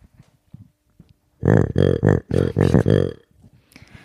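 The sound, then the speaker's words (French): A retro plush toy bear named Grumly lets out a loud, gravelly grumble made of five or six quick voiced pulses, lasting about a second and a half, with only faint background noise around it. “Ah oui, qu'est-ce que t'as ramené, euh, Cédric, qui fait ce bruit”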